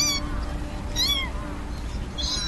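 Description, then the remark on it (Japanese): A kitten in the bushes of a park meows in high, thin cries, about three short calls spaced across the moment, over a steady low background hum, with no one speaking. “学校帰り私と由美子ちゃんは公園の茂みでみゃーみゃー鳴いている子猫を見つけたのだ”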